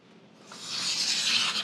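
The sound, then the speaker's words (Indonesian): A very sharp, freshly sharpened knife slices through a new sheet of paper in one smooth, steady stroke, a soft hissing swish that grows louder over a second or so, with no talking. “Nah, kita ambil kertas baru aja kali ya. Oke. Okay. Nah, ini bedanya nih. Nah, ini kalau pisau yang benar-benar tajam.”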